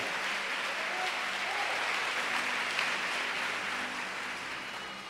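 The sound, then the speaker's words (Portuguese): A crowd claps steadily and densely for the Lord, a continuous wash of many hands applauding together, holding an even level throughout with no talking over it. “Se você crê, pode aplaudir o Senhor.”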